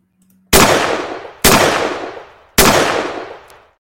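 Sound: gunshot sound effects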